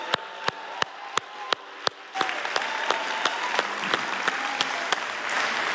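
Audience applause begins with a few sharp, evenly spaced claps, then swells into a steady, dense wash of clapping with some rhythmic claps still audible on top. No one speaks.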